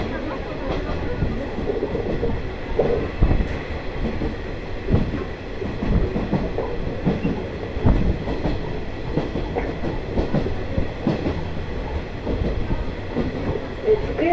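A JR Shikoku Ai Yoshinogawa Torokko sightseeing trolley train rolls steadily along the rails of the Tokushima Line from Awa-Ikeda to Sadamitsu, a continuous rumble broken by frequent rhythmic clicks and clacks of the wheels, with no talking heard.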